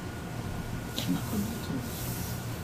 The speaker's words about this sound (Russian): Что ты там листаешь?